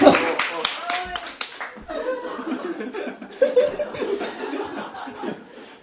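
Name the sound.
applause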